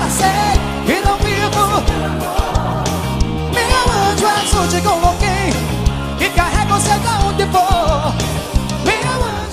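A pop ballad plays continuously at full volume, a sung melody soaring over a steady band with drums and sustained chords, the mix dense throughout.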